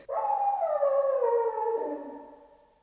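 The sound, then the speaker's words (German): A dog lets out a single long, mournful howl, its pitch sliding slowly downward before trailing off. The sound is clear, with no voices present. “Sie heulen heute schon den ganzen Tag.”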